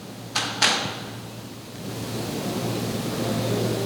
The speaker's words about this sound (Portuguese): Foi uma cadeira que quebrou ali.